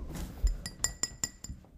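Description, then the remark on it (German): Several sharp glass clinks ring out in an uneven series, each a bright, brief ping with a short shimmering tail, moderately quiet with a low rumble beneath. “Fix, das ist jetzt Glas.”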